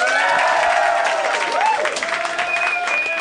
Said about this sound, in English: Okay, t- okay t- guys, t- silence. Uh, uh, applause on three. One, two, three.